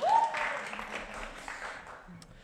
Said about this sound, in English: About anyone, take a round of I'd say a bow. round of applause.